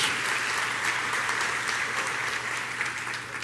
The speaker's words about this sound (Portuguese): Então dá uma glória a Deus aí, dá uma salva de palmas, se movimenta em nome de Jesus.